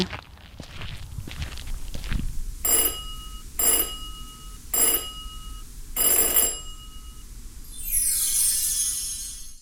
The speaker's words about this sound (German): Klingel rasch und flott, dreimal und einmal lang, so erscheint sie im Eingang.